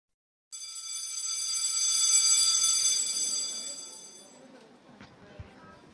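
A school bell rings for the end of recess in one loud, continuous electric peal for about four seconds, then cuts off, leaving faint background noise and a few soft knocks.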